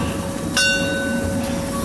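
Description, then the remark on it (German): The Molly, a narrow-gauge steam train, rumbles steadily through town past villas and parked cars, with a sharp metallic clang and its ringing bell rising over the continuous low clatter of the carriages. “Man fährt mit dem Molly quasi durch den Vorgarten.”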